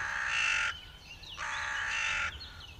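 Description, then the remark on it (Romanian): A hooded crow gives two harsh, raspy caws, each lasting under a second with a short gap between, loud, with faint bird chirps in the background. “Gălăgioasă își anunță prezența prin croncănitul repetat, aspru și răgușit.”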